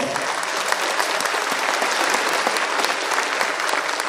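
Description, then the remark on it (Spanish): An audience breaks into steady, loud applause, a dense wash of many hands clapping that holds evenly for a few seconds without a break. “Un aplauso para ustedes, vamos.”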